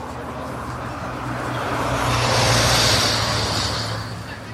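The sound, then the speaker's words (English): A car swishes past on rain-soaked concrete on a busy street, its hiss of tires swelling to a peak midway and fading away, over a steady low rumble of street noise. “Every time a car passes on the wet concrete, I hear the word yes.”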